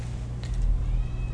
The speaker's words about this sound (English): is there a cat in the background? Are you hearing? I'm hearing uh, plaintive meows hearing, from my side. I'm hearing plaintive meows. There could be any number of cats in the background.